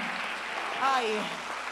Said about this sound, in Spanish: Si le vas a dar un aplauso al Señor, dáselo bien.